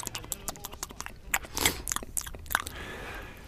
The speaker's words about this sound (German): Schmatzgeräusche.